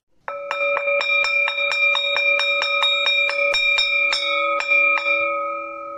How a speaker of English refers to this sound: When the last school bell rang, all the children laughed and screamed with joy.